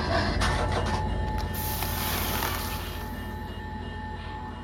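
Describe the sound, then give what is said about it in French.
A toy train in the Roudoudou Jouet toy shop clatters and rattles with a steady rhythmic mechanical chug, then a harsh metallic scraping burst as it derails, loud, easing off slightly toward the end. No voices. “Et la dernière chose que j'ai vue avant de sortir, c'est le train qui déraillait.”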